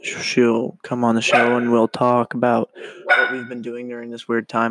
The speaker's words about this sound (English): And if you can hear that behind me, is my dog barking at someone that's walking.